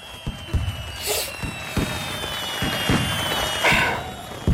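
Fireworks go off in a rapid, irregular string of sharp pops and thuds, with two brighter crackling, hissing bursts rising above the steady popping. No one speaks.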